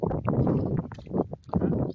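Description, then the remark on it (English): Steady outdoor wind on a cool morning rumbles and buffets the microphone, a loud, continuous low roar with gusty swells that briefly dip before surging again. “a little bit of wind here.”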